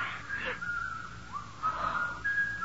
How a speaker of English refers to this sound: There's that whistling again.